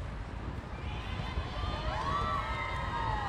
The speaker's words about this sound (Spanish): Sí, hay reclamos y también hay porras. Y empieza la, la Ensenada, trae buena porra, ¿eh? Hoy, oigan los gritos de Ensenada, las chicas de Ensenada andan apoyando a sus compañeros.